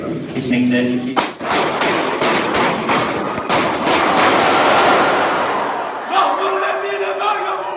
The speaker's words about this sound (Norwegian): Det der var lyden av skuddene i Ankara. Sånn hørtes det ut da den eh, russiske ambassadøren ble drept eh, da han holdt en tale på et kunstgalleri i den tyrkiske hovedstaden litt før jul.